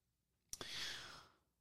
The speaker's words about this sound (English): Ugh! big yawn from the kid.